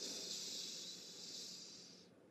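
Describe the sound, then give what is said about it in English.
A steady breath, airy and hissing, drawn in through the nose and out through the mouth in a breathing demonstration, lasting about two seconds before cutting off, with no talking. “I'm breathing in through my nose and out through my mouth for those people who are not watching this on the video.”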